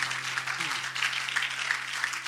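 A church audience claps their hands to the Lord together in a steady, dense wash of applause, with a low hum underneath and no distinct voices.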